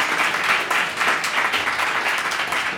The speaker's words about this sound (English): Before we do anything, can we clap our hands and give God a praise, everybody?